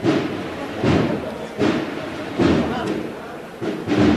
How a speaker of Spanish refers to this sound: Ahora suena el tambor templado de la banda que viene de los remedios de la Hermandad de las Cigarreras.